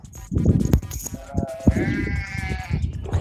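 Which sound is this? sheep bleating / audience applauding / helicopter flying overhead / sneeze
sheep bleating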